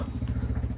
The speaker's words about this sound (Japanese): アイドリングしてるんで、ちょっと音が入ってると思いますが、そうそう。ね。ちょっと今バイクのアイドリングの音が入って、多分この後乗られると思うんで、バーッとバイクが通り過ぎていく音も入ると思いますが、